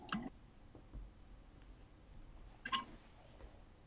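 Two short, soft wet sounds a couple of seconds apart: sips or swallows as a speaker takes a quick drink of water, with no talking.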